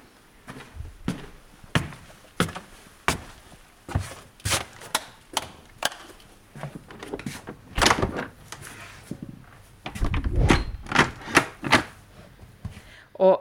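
door being opened

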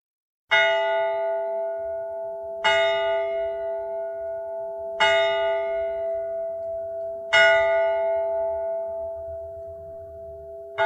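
clock bell striking twelve

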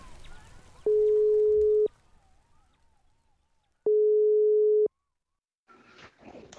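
telephone ringing tone

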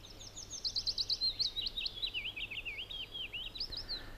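willow warbler song

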